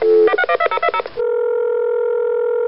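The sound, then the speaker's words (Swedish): A quick run of about eight or nine telephone keypad beeps, clear, followed by a steady unbroken electronic tone that holds for about a second and a half before cutting off, as a call is placed to the general secretary of the Lidingöloppet race. “Christer är med oss på telefon”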